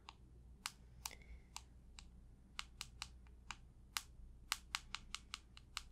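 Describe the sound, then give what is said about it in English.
Someone types on a computer keyboard, entering information, crisp individual keystrokes tapping in uneven bursts, with a faint low hum underneath and no voices. “Let me just put in some info for you.”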